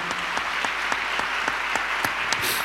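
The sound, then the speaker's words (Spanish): An audience applauds to God steadily, a dense wash of many hands clapping with sharper individual claps popping out at an even, rhythmic pace. No one speaks over it. “¿Cuántos dan un aplauso a Dios por eso?”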